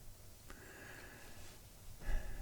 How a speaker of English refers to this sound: The dog is making noise. She's so cute. She's a beautiful animal. She is so gorgeous.